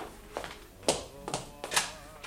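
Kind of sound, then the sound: household object, knocking on a door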